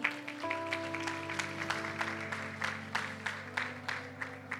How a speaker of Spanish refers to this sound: ¿Cuántos se unen a este desafío? Amén, dale un fuerte aplauso al Señor.